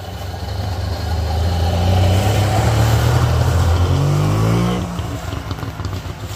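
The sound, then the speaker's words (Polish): An old Syrena 105L car engine starts and runs with a steady, throaty rumble, its pitch climbing briefly as it revs before dropping back to a lower idle. No voices are heard. “ale uruchomił syrenkę, powiem powiedzieć syrenę 105L, bo syrenka ta może być warszawska, chociaż ta syrena też jest warszawska.”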